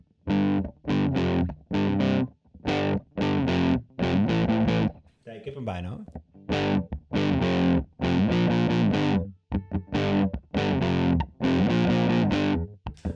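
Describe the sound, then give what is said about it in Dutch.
A loud distorted electric guitar hammers out a choppy, repeating rock riff in short chord bursts, pausing briefly midway while someone says a few words before the riff resumes. “Volgens mij kan ik daar wel wat van spelen.”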